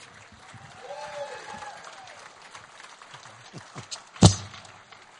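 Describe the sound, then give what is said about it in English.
A church audience applauds steadily to welcome an audience member as a guest, a dense patter of clapping with faint voices mixed in, broken near the end by one loud, sharp thump. “Would you welcome a member of our congregation, a graduate of Under His Construction”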